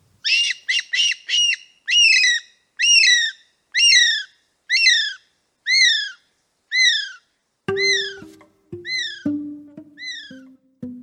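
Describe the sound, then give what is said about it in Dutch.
A kiwi bird, whose onomatopoeic name imitates its call, calls in a long series of shrill, rising whistles, starting with rapid short notes and settling into evenly spaced loud cries, with a lower, hoarser call joining near the end. “En trouwens, die vogelnaam die is gebaseerd op het geluid dat het beestje maakt.”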